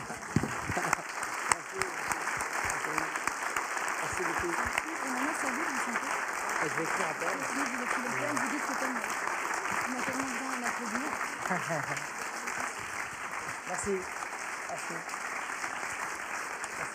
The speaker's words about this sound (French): Je crois que vous avez tellement bien applaudi que peut-être ça serait pas fini tellement vous avez bien applaudi, tellement on va survivre, tellement ils ont bien applaudi.